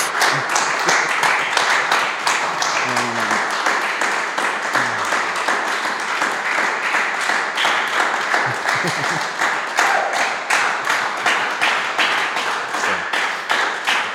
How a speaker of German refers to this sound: Wir sind raus. Einen Applaus.